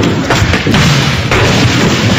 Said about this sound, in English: Cue dramatic music. Cue door getting kicked in.